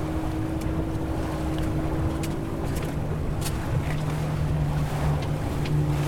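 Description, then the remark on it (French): A motorboat's engine drones steadily, its low hum shifting pitch slightly as it goes by, over rushing water and gusty wind noise on the microphone. “bien sûr, on, qu'on ne doit pas couper la route des bateaux, surtout.”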